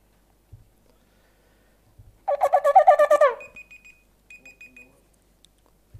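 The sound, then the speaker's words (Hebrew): A loud shofar blast sounding a teruah, broken into a quick burst of about nine short staccato pulses within a second, then a few faint, thin electronic beeps. “תקיעת שופר הלכה למעשה בלווי המחשה”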